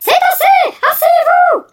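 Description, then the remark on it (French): A woman lets out loud, high-pitched screams: two quick pairs of drawn-out cries, each rising and falling in pitch, with a short gap in the middle and no other sound around them. “À chaque dictée, à chaque récré, à chaque leçon sur les cétacés, elle s'est même mise à crier”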